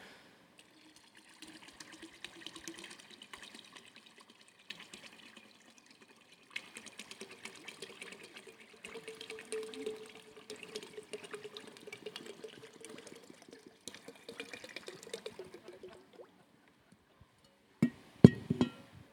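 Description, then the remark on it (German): Two liquids are poured together into one glass in several bursts, a steady trickling splash with a rising tone as it fills, pausing briefly between pours, ending with a few sharp clinks. No talking. “Ja, ich stütte jetzt mal Liebe und Hektik zusammen in dieses Glas, okay?”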